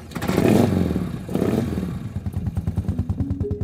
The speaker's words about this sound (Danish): så kører han rundt i Europa i sådan noget, der hedder en Morgan 3-wheeler.